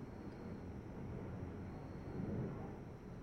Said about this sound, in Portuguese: Aham, ele deve estar tá captando esse barulho aí. É do avião que passa aqui perto de casa. Moro perto do aeroporto. Da cidade. Então, essa barulheira do caralho aqui.